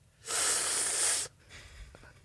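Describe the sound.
A voice imitates a sharp, anxious inhale hissed through the teeth, as made by a passenger sitting beside a learner driver: one loud, airy draw lasting about a second, then quiet background noise.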